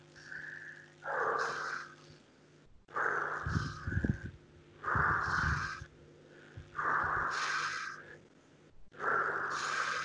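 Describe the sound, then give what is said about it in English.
Heavy breathing in a steady cycle: short inhales through the nose alternating with longer, forceful exhales through the mouth, repeating about four times over a faint low hum. “Also notice I'm breathing in with the nose and out with the mouth.”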